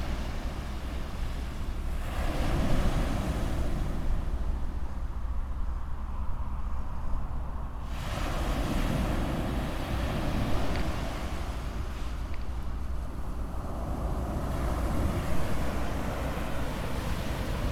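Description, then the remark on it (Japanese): Ocean waves break and wash in steady, rolling surges every few seconds over a constant low rumble of surf and wind, with no voices present. “特にさ喋らなくてもいい感じでしょ波の音聞いてるだけでも。”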